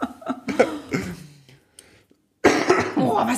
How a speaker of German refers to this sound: Echt, und jetzt mal? hier schnuppern und husten. Was soll das? Husten und schnuppern und Heiserkeit.